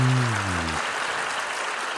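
Steady crowd applause fills the whole two seconds, dense and fairly loud, with a low descending tone sounding briefly at the start before the clapping continues on its own.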